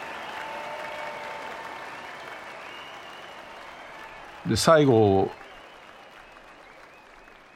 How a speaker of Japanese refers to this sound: イチロー全力疾走及ばず一塁は間一髪アウトしかしスタンドのファンら総立ち総立ちで大きな拍手を送っています